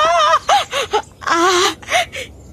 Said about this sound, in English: I did mean to pull a sound of Luanne crying